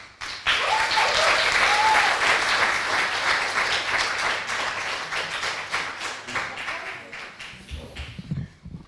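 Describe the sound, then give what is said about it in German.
A crowd breaks into loud, sustained applause for two spoken word artists about to perform, a dense wash of many hands clapping that gradually thins out and fades toward the end, with a few faint voices underneath. “Großen Applaus.”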